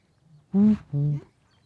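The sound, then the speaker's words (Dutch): Two deep, hollow booming hoots of a Eurasian bittern, one right after the other, resonant and fairly loud against a quiet outdoor background, in a nature area on the edge of Rotterdam near Zevenhuizen, Netherlands. “een bizar geluid, joh. Ja, dat is de roedom.”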